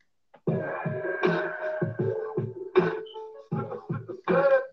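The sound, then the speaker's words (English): A hip-hop beat plays on its own, with punchy low drum hits landing in a steady rhythm beneath sustained, buzzy synth tones and occasional bright crashes. “Listen to this beat though.”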